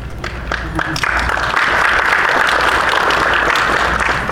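Audience applause swells quickly into a dense, sustained wash of many hands clapping, loud and steady for several seconds with no voices standing out.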